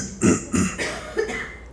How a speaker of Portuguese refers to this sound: Então quem tossiu?